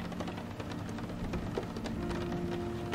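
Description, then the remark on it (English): Steady rain from a passing thunderstorm pours down in a continuous, dense hiss of drops hitting surfaces, with a low rumble of thunder beneath it and no voices. “Sleep as a thunderstorm and rain passes”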